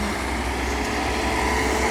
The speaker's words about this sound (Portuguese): Ó, depois desse aqui vai. Ah, vai altos carros aí. Sim. Não, vamos esperar.